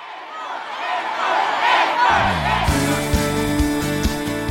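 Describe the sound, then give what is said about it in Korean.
A large concert audience cheers and shouts in a steady, loud roar; about halfway through, booming live music with heavy bass notes starts up while the crowd keeps yelling beneath it. “목이 터져라 외치고 듣고 싶었던 이 소리.”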